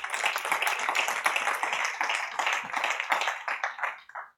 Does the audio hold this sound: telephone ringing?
no